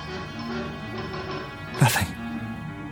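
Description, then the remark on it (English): A dog gives one short, sharp bark, with faint whimpering noises around it, set against a steady low humming background. “Call the dog again.”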